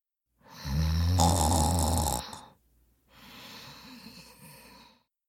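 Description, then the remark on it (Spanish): A single loud rasping snore on the in-breath from a woman asleep in her bed, followed after a brief pause by a softer, airy exhale; no talking. “Se va a su cama y se duerme.”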